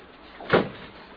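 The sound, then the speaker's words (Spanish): A single short thump of a door somewhere toward the back of the house, muffled and moderately loud, standing out briefly against a faint steady background hiss with no talking. “Se me figuró que sonó la puerta del fondo.”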